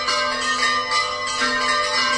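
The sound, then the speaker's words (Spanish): Church bells ringing out from the sanctuary and brotherhood house of Nuestra Señora de la Cinta, pealing continuously in a dense, ringing wash of overlapping metallic tones that stays loud and steady throughout, with no voices heard. “Apenas se nos escucha con el replicar de campanas desde el santuario, desde la casa de hermandad”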